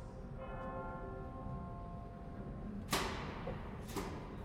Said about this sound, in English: The chimes ring.